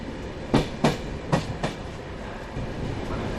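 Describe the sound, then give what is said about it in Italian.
A train rolls past at Roma Termini station in Rome, its wheels clacking over rail joints in two quick double beats above a steady low rumble, with no voices. “Il giorno che sono entrato in cabina, giorno, il primo giorno che sono entrato in cabina, sono entrato qui a Roma Termini.”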